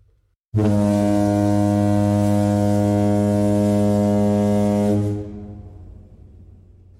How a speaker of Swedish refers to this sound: Och så slutar säsongen med, nu är det spoiler här, mm. så du kan lägga in en tuta.